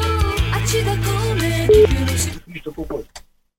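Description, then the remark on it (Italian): A telephone line rings through a busy, buzzing mix as a prank phone call is placed, with a short steady beep near the middle; after a couple of seconds the tones give way to a person talking. “Squilla, sentiamo che squilla. Eccolo. Squilla, squilla, squilla.”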